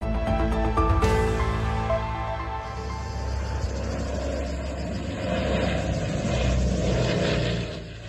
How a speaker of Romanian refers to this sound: Un avion de stingere a incendiilor cu cel puțin două persoane la bord s-a prăbușit astăzi în insula grecească Evia în cursul unei intervenții.